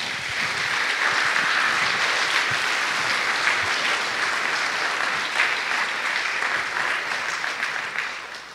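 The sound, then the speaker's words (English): Sustained audience applause for a group of men as they make their way back to their seats, a dense steady clatter of many hands clapping at an even loudness for several seconds before tapering off slightly at the end. No voices stand out. “but can you give these men a round of applause can you do that”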